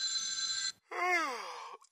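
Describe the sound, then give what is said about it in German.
A single steady electronic telephone ring, like a ringback tone on an outgoing call, sounds for under a second, then stops and a drawn-out, sleepy-sounding vocal groan follows as the called man answers, having just got up. “Er geht nicht ans Telefon.”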